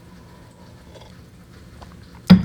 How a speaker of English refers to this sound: All right, I just took a sip of tea.